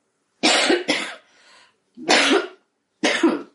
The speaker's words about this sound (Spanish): Perdón por la tos.